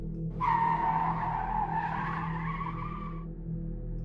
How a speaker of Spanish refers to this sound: Ante la impresión y por reflejo, frené a fondo, a tal punto que mi unidad patinó.